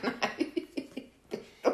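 A rapid series of short, dry coughs, a string of quick bursts with a brief pause before one last forceful cough.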